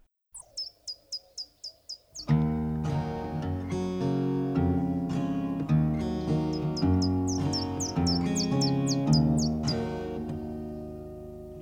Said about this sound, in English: the tweeting in the intro is louder in the mono mix